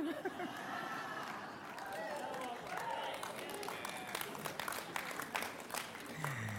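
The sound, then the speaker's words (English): A small audience breaks into scattered, uneven clapping that grows sharper toward the end, mixed with a steady murmur of crowd voices underneath. “Thank you for those 20 claps.”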